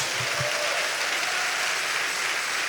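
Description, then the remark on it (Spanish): A church audience applauds for the Lord during a sermon in a steady, dense wash of clapping that holds at an even loudness throughout, with no voices standing out above it. “Denle un aplauso al Señor, hermano, gloria a Dios.”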